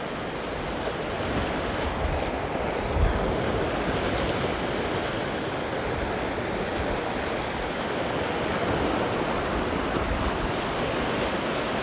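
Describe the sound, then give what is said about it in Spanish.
Ocean waves break on the shore in a steady, rushing roar of surf that swells slightly now and then, continuous, with a hint of wind and no voices. “Eso sí, si los tienes abiertos, mantente en la pantalla para ver el espectáculo del mar.”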